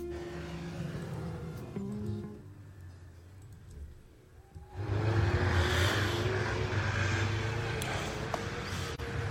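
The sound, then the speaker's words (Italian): Snowmobile engines drone, their hum easing off briefly before a louder, rougher roar surges in and holds steady as the machines rev across a snow track at Sestriere during a valley tour. “Motosglitte tutte in azione, vedete, spadroneggiano qui nella pista”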